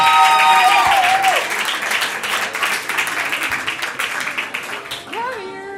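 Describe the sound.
Sustained audience applause as a woman is called up on stage to sing, dense and steady clapping from many hands with some cheering and whoops over it, fading slightly toward the end as a voice rises briefly.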